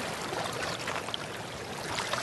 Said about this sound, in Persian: عجب آبیه این همه این آبیه که ها دارن بهش میگن آب برهم آب سه تا قنات ریختن رو هم